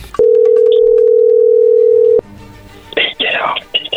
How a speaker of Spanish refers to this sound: ahí se está marcando, no hagas nada de ruido